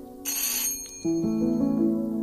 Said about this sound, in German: hat geklingelt, aber ich mache nicht auf.